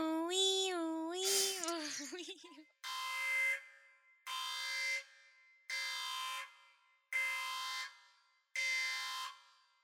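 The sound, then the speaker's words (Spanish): A spoiler-warning alarm sound effect opens with a wavering, warbling tone, then gives way to five loud, harsh buzzing blasts repeated at an even pace with short silences between them. “Este, y bueno, ahora sí, vamos a la alarma con spoilers, que espero ahora sí ponerla.”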